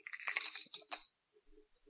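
Crunching of crisp tortilla chips, a cluster of brittle, crackly bites over about a second, then only faint, soft chewing sounds.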